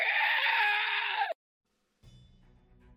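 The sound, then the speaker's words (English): A loud, harsh, shrieking monster scream as the creature drops to the ground dying, lasting just over a second, cutting off abruptly into silence before a low rumbling background noise returns. “The, the thing's going to drop to the ground with another scream!”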